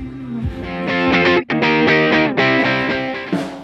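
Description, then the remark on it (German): A loud live band at a festival plays heavily distorted rock, sustained chords shifting every second or so with a brief cut near the middle, no voices over the music. “Wir nutzen mal die, die, die Chance, in der Lücke zwischen den Bands aufzunehmen, weil es doch ganz schön laut.”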